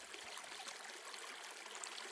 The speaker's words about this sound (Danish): Med et skrig forsvandt han og blev til vand, der løb ned på stien og ned i dalen.